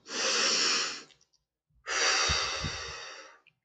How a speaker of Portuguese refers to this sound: Quero te convidar agora, agora, nesse momento, para respirar fundo.